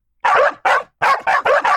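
A dog barks loudly, about six sharp barks in quick succession, the first few slightly spaced and the rest coming in a rapid run, with no talking.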